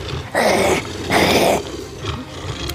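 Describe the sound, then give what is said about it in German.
A monstrous two-headed dog baring its teeth snarls and growls in two loud, rasping bursts about half a second each, separated by a low, rough rumble, with no voices. “Und äh, in diesem Moment tritt aus der Dunkelheit direkt vor dir ein zweiköpfiger, zähnefletschender Hund aus, den, aus der Dunkelheit der dich einfach nur total böse anfunkelt.”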